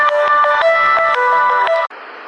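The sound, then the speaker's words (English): A loud melodic phone ringtone of an incoming call plays a bright electronic jingle for about two seconds on its own, then cuts off abruptly into a brief hiss of noise. “Sorry about that. Uh, phone calls.”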